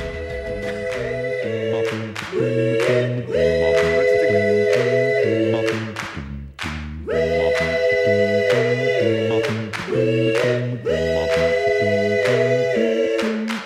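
The intro of a French pop song released in 1992 plays loud: sustained synth chords shifting in steady blocks, with crisp, regular drum hits punctuating a mid-tempo beat and a brief dip before the pattern repeats.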